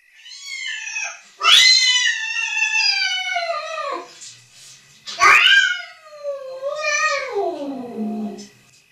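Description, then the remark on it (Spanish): A cat caterwauls in two long, loud, drawn-out yowls that bend up and down in pitch, each wail sounding eerily like a crying child. “La niña dormitaba intranquila pensando en su gata cuando fue despertada por el lamentoso chillido de un niño de ultratumba.”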